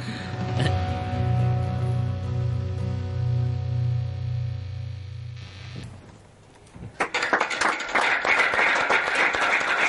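A steady, droning hum with sustained tones fills the first half, then fades out and gives way to loud, dense applause from a crowd that continues to the end.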